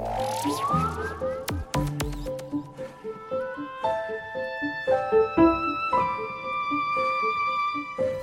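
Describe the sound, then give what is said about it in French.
A male turkey next to a small wooden henhouse gobbles in rapid, warbling bursts of calls that repeat throughout, fairly loud, with no one talking. “Alors, on entend la dinde hein, qui est à côté. Alors, c'est le dindon, hein, même qu'on vient d'entendre.”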